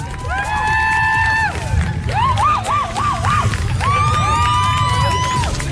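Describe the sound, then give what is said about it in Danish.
A large crowd cheers and claps loudly and continuously for a girl who has won a trip to London, with shrill whistle-like tones rising, wobbling and falling above the roar of the audience. “Kan vi lige alle sammen lige give hende en kæmpe stor hånd?”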